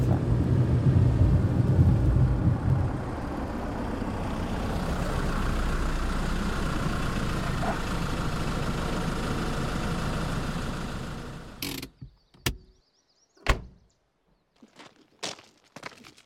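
A car arriving at a farm (a GAEC): its engine rumbles steadily at idle for about twelve seconds, then cuts off abruptly, followed by a few sharp clicks and thuds in the quiet.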